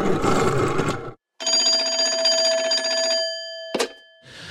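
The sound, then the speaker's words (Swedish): A telephone rings steadily on an outgoing call from the show Fotbollsmorgon to a guest, a sustained electronic ring after a brief burst of noise, cut off by a sharp click as the line connects. No one speaks. “För vi ska faktiskt ringa upp en, eh, ytterligare en gäst.”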